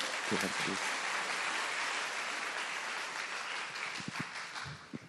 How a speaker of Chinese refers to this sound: 我们鼓掌欢迎他来分享啊！